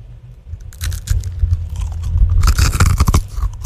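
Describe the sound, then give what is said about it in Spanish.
A doughnut is broken apart and bitten, giving a burst of dry crackling and crunching that builds into loud, irregular crisp snaps, with low muffled rumbling underneath and no talking. “¿Quieren ustedes escuchar el sonido de una rosquilla quebrándose?”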